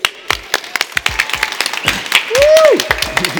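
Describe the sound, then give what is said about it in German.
An audience applauds to welcome a guest, a senior vice president of Startkraft, with a dense, steady patter of many hands clapping. Midway, a brief rising and falling whoop or whistle joins over the applause. “Einmal Applaus bitte für”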